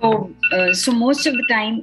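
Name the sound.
phone alarm ringing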